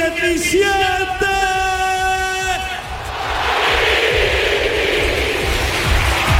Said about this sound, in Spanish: Tremenda ovación no es para menos para un futbolista cuyos valores ha resaltado el presidente de la Junta de Andalucía, Juanma Moreno.